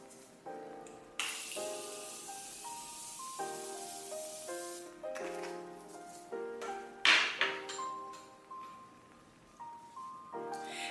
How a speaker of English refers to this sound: So let me spray with my Morphe setting spray.